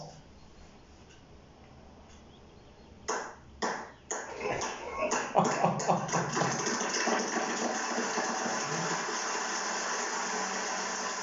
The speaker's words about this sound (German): Alexa, bitte Applaus.